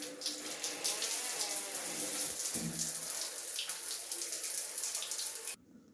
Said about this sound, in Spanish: Lo que primero escucho al despertarme es la ducha, la agua de la ducha.